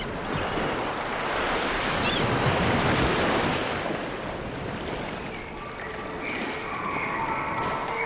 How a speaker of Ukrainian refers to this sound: На камінцях буде муркотіти море.